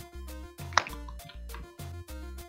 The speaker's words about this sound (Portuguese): Nossa, aí eu misturei a cachaça de banana com velho barreiro, botei gelo, limão e Coca-Cola. É o drink fitness.